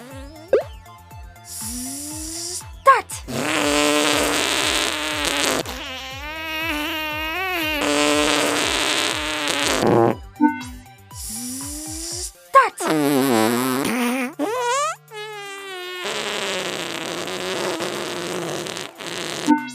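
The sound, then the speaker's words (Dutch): A long, drawn-out fart stretches on for many seconds, buzzy and wavering in pitch, broken into several sustained blasts with short pops and sputters between them, loud. “Let op, probeer voordat het scheetje stopt de overkant te halen.”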